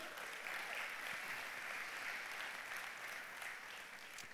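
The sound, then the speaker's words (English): Steady audience applause fills the whole stretch, a dense crackle of many hands clapping at an even, sustained level, easing off only slightly toward the end, with no voices standing out. “Now, the very people that are clapping right now, this is for you.”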